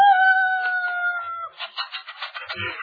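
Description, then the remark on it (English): A dog lets out a long, steady, wolf-like howl, holding one clear pitch for over a second before it breaks into rougher, choppy bursts of sound. “Which just goes to prove that there's a little bit of wolf in the best of dogs.”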